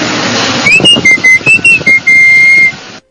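A person whistles a quick series of short, clear notes that bend up and down in pitch, then holds one long steady tone, all over a constant rushing background noise.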